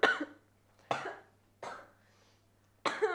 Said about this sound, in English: Do you know like when you just choke on your own saliva and then you just start like coughing a lot?